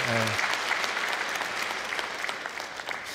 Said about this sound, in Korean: 혹시 베리하고 뉴마켓에서 오신 분들 계시면 좀 손을 들어서 좀 표시를 해주시기 바랍니다. 이거 창피한 거 아니잖아요. 그렇죠? 박수 쳐드리려고 하는데. 네, 박수 쳐드리고.